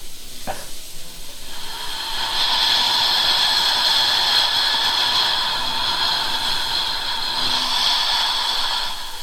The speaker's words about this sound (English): I'm not messing with the volume. That's just how it's going. Sounds like we're at a train station.